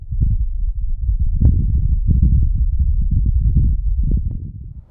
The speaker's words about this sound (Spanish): Y eso que ahora podemos ver la superficie de la Luna o panorámicas de Marte o podemos incluso escuchar cómo suena el planeta rojo. Así suena el viento en Marte.